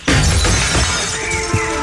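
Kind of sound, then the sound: impact, window glass being smashed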